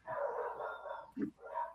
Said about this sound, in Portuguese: Os cachorros decidiram gritar.